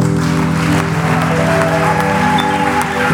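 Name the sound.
audience clapping hands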